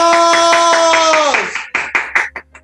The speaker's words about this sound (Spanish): ¡aplausos!